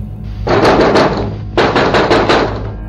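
Loud, rapid knocking on the door of a classmate's room in two bursts of sharp, repeated blows, with a brief pause between them and a low hum underneath; no one speaks.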